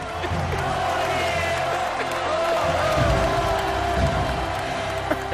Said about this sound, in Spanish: es de justicia dar la primera ovación, aunque no quede del todo bien, a este programa y a esta casa por el programa pasado y por este que ya termina también.